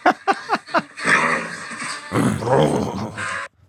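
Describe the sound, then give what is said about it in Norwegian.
A horse makes a few short, sharp vocal bursts, then breaks into a loud, throaty rumbling nicker that fluctuates for a couple of seconds before stopping abruptly. “God oh, brummelyd. Ja, hester, hester, har jo mye kropp. Mye rom for å lage lyd.”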